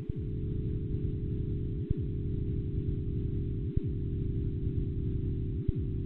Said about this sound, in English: You're hearing uh, frequency shifted sound waves uh, from the Big Bang that were measured uh, by a NASA satellite moved very far up in frequency so that the human ear can hear them.